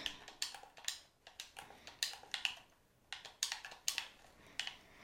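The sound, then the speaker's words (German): Rapid, clattering keyboard and mouse clicks in irregular bursts as someone makes fast building edits in a game, fairly loud, with brief pauses between flurries of keystrokes; no voices. “Jetzt dürftet ihr auch Maus und Tastatur immer richtig laut hören.”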